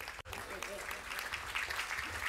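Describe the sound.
An audience applauds with dense, steady clapping that holds at an even loudness throughout, after a split-second gap at the start, with a murmur of voices mixed in.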